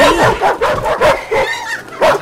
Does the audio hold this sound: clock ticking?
no